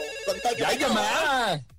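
A telephone rings with an incoming call during a La Mejor broadcast, a bright, melodic ringtone whose tones rise and fall in pitch, sounding steadily for about a second and a half before cutting off abruptly.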